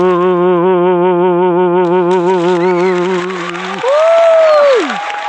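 Live audience applause at the venue, a steady crackling patter that rises under a long sustained sung note with vibrato and carries on after the note ends, joined briefly by a sliding vocal exclamation.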